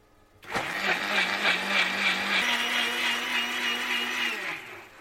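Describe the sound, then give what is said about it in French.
A blender switches on abruptly and whirs loudly while blending pea pods with a little water, milk, salt and pepper, a gritty churning noise, its motor pitch stepping up partway through as it goes from slow to faster, then it cuts off near the end. No talking. “Donc là, on prend les cosses, on vient de les mettre dans le mixeur.”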